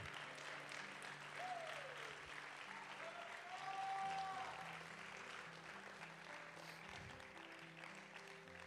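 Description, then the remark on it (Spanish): An audience breaks into sustained applause for the Lord, a dense wash of clapping for several seconds, with a few faint cheers and whistles rising above it. “Los que tengan alas, que le den un aplauso al Señor.”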